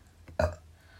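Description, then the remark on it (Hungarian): A single short, loud burp erupts, a brief guttural rasp that fades quickly into quiet, with no talking around it. “A büfi, fing, minden jöhet.”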